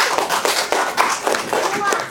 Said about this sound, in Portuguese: E vocês merecem o quê? Os colegas aqui merecem o quê, ó? Palmas.